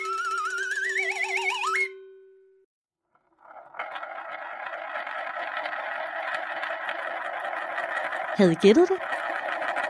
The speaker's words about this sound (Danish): Det er lyden af en snoretop. Og sådan en kan snore rigtig længe, hvis man ellers får den sat godt i gang. Men på et tidspunkt, så vil den altså stoppe.